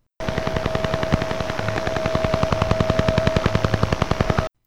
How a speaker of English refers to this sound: when Duga 1 was put into full operation in the mid 70s, it started generating radio interference, uh, which sounded like this.